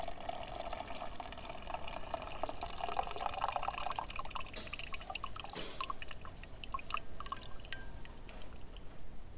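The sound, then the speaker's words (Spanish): A coin-operated coffee machine streams boiling coffee into a cup in a steady hiss whose tone climbs as the cup fills, then tapers into a few scattered drips. No one speaks. “El chorro hirviendo cayó sobre el vaso y esperó a que la máquina hubiese terminado de escupir su bilis negra.”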